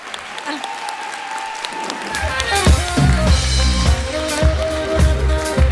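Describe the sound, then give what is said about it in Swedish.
A live audience in a hall, asked to clap to show how many people are there, breaks into sustained clapping that builds after a couple of seconds, a dense, steady patter of many hands with some cheering or voices mixed in. “Så om vi kan hjälpa till att klappa lite.”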